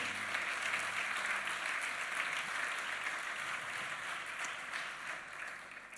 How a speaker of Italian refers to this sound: Facciamoci un applauso allo Spirito Santo.